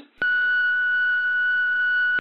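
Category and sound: signal or alarm, voicemail beep tone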